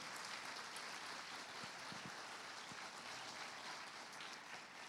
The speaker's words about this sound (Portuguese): Você pode aplaudir ao Senhor.